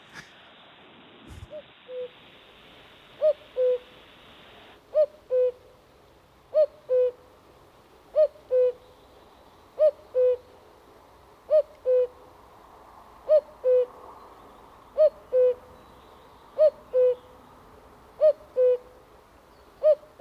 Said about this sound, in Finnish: Mutta tämä käki kukkuu H-duurissa